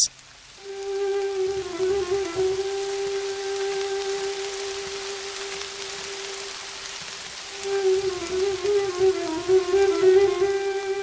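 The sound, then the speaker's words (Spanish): Steady rain falls as a soft, continuous hiss, with a sustained humming tone over it that gets a little busier and louder toward the end. No one speaks. “lluvia, lluviecita, qué bonita estás.”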